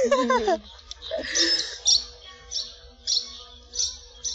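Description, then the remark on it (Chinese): Small birds in the distance chirping in a steady series of short, high-pitched bursts, about six in a row, following a brief lower-pitched call at the start. “叽叽叽叽，远处的小鸟。”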